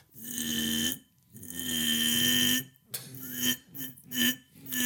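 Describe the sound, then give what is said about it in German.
A voice imitates neighbours' struggling power drill on a Sunday as they fail to drill a proper hole: two long, strained droning whirs, then several shorter choppy bursts, as if the motor bogs down and revs up again. Fairly loud. “die Klassiker-Nachbarn, die, ach, Sonntag, scheißegal, die den Bohrer rausholen und dann nicht mal ein vernünftiges Loch irgendwie reingebohrt bekommen, weil du hörst immer so.”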